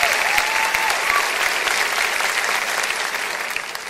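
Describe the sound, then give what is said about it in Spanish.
Sustained audience applause, a dense steady wash of many hands clapping at an even loudness for a few seconds, with a brief faint whistle near the start. “Y esta historia, bueno, aplaudan con ganas o sin ganas,”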